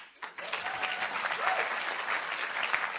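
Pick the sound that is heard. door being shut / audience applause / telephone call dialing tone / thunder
audience applause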